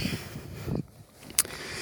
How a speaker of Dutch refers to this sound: Er staat wel wat hardere wind. Ik probeer hem eh, tegen te houden met mijn jas.